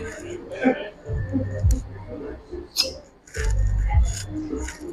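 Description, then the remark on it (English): Two wet squelching suction sounds, each a low rumbling pull that ends in a sharp little pop as a glass cupping cup is pulled up and comes free from skin, a finger slipped between glass and skin, with faint murmuring voices underneath. “You get that suction sound.”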